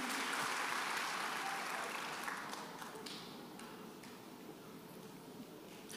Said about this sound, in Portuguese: Se você puder dar um aplauso bem forte para o Senhor.